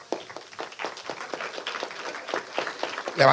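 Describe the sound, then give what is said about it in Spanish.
An audience applauds comic artist Kenny Ruiz with steady, dense clapping: many hands overlapping in a continuous patter of sharp claps, swelling louder in the final moment. “Tenemos allí, por favor, un aplauso para el señor Kenny Ruiz”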